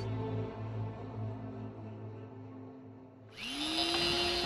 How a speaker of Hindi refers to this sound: अगली सुबह उतनी भी शांत नहीं थी क्योंकि ड्रिल मशीन और भोकने पिटने की आवाज़ें इस खामोश माहौल में गूंज रही थी दरअसल ये आवाज़ उस सिक्योरिटी सिस्टम को इंस्टॉल करने की आ रही थी जो कबीर आज सुबह ही घर लेकर आया था